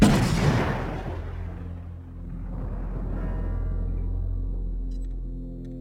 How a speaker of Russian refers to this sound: Только что вы слышали, как Игнатий Гриницкий взорвал царя-освободителя Александра II.